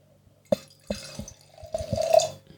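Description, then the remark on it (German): Wine glugs and splashes into a glass, starting with a few sharp clinks and gurgles, then a steadier rising pour near the end. Fairly quiet, with no talking. “So, wird Zeit, dass wir wieder was trinken hier.”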